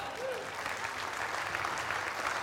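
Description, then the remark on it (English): Steady, dense applause from an audience clapping for the kids, many hands clapping together in a continuous even wash of sound that holds at a constant level throughout. “Come on, let's give the kids a clap.”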